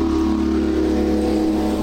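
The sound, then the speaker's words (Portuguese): A multi-piston engine, with pistons connected to a crankshaft, runs steadily, its low rhythmic drone and throbbing harmonics holding constant and loud throughout, with no voices present. “Aí, ó, o motor em ação. O motor funcionando, que desgraça.”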